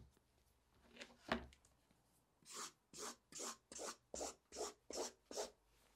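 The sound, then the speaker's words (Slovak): A pen or marker draws lines across clean paper in a steady run of about eight quick, raspy strokes, fairly loud, after a brief soft rustle of paper handling. No one speaks. “A ja začnem znova s čistým papierom a s čistými čiarami.”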